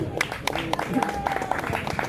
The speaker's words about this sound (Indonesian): Boleh tepuk tangan dulu kawan-kawan.